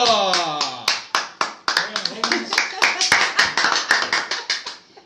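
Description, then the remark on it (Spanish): A crowd applauds a person being introduced, with steady, brisk clapping that carries on for several seconds, sharp claps piling up densely, while voices call out over the start before fading under the applause. “Fuerte el aplauso para”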